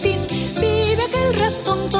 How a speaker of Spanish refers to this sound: Y aquí en esta canción escucharéis la pandereta que estaba a cargo de Luis del Val.